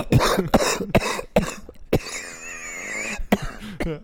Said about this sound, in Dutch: nee, ik, ben al, ik loop al weken eh, te kuchen en te hoesten en te poetsen.